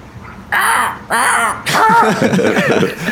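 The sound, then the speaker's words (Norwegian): Two loud, harsh caws in quick succession, then a longer ragged stretch of overlapping cawing as several people at a talk about the crow family join in, all voices mimicking a crow. “Kan dere gi meg en sånn kråkelyd?”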